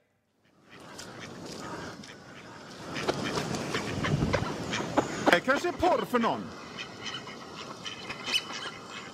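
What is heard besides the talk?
ducks quacking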